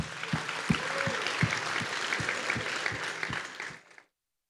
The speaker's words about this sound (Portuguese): Palmas, gente, palmas.